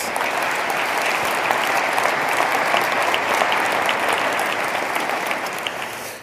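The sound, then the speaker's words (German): Steady applause from an audience, many hands clapping densely and evenly for about six seconds at a fairly loud, sustained level with no talking over it. “Schauen wir dafür schon mal einen Applaus”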